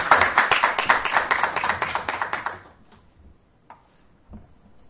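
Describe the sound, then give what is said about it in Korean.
A burst of audience applause, many hands clapping in a dense, steady patter for a couple of seconds, then cutting off into near silence with a few faint stray sounds. “다시 한번 큰 박수를.”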